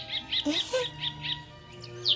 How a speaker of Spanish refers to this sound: Aquí están los pajarillos. Están todos mojados, pobrecitos. Hay que secarlos.